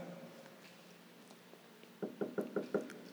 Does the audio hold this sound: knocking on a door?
yes